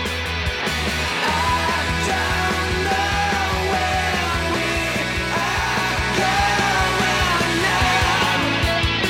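Loud rock music blasted as loud as possible from the sound system of Tottenham's stadium, with a driving, steady beat and thick guitars, while many voices seem to shout and sing along over it without pause.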